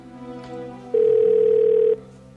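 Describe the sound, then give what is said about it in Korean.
A single steady electronic phone tone sounds for about one second, loud and clear over a faint low background hum, like the ringing signal heard while an outgoing call waits to connect. “그 사람이 긴 머리의 여자 뒷모습을 바라보고 있는 사진이었고 이상한 느낌이 들어 전화를 걸었습니다.”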